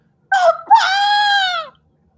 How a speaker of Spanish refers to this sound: El monstruo luchaba ventajosamente contra la indefensa y aterrorizada muchacha. Jane volvió a gritar con todas sus fuerzas.